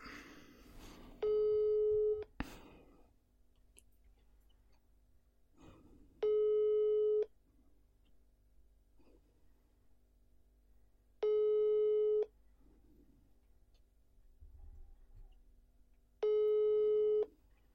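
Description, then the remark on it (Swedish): A telephone ringback tone from an outgoing call: four steady one-second tones, each about five seconds apart, clear against a quiet background hum, with no talking. “Kommer ni höra signalerna här så får ni också lite puls.”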